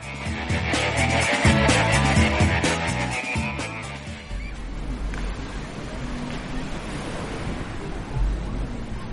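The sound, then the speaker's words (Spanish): Sea waves wash onto the shore at Ostend, in Flanders, in a steady, broad roar with low rumbling surges, taking over after a few seconds of music at the start. “Este sonido nos permite ubicar Ostende con una vista clara, y es que sí, está frente al mar.”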